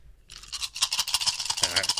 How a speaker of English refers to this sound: How did you get three on four dice? Well, most of them fell off the table. Uh, oh, man. To, uh, well, and one of them hit me in the head. uh. It was actually eight dice.